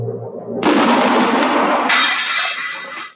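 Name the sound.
cannon firing sound effect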